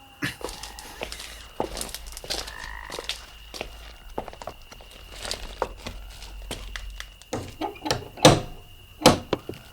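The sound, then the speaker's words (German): Knocking on the door of a house: a couple of sharp, hollow raps at the end, after a stretch of soft shuffling and scattered clicks over a low, steady hum. “Naja, ich klopfe mal.”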